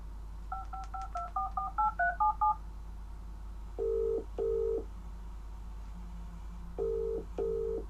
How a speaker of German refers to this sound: Was ist das? Ne? Genau, das Telefon. Du hörst das Telefon.